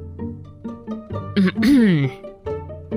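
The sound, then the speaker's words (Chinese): A loud, gruff throat clearing by the storyteller Grandpa Story before he recites a magic chant, a rasping burst in the middle followed by a drawn-out voiced 'ahem' that slides up and down in pitch, framed by short voiced murmurs before and after. “故事爷爷先是清了清嗓子，开始念起了魔法咒语”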